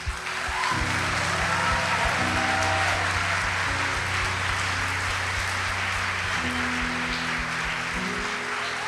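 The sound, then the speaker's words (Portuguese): A church audience applauds steadily for about nine seconds as 49 baptism candidates are called to the stage, a dense, even wash of clapping over sustained music chords that shift underneath. “Uma salva de palmas.”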